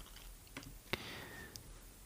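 A computer mouse is clicked as someone clicks on a link: a few quiet, sharp clicks spaced irregularly, with the strongest click near the middle and a faint tonal whine in the background.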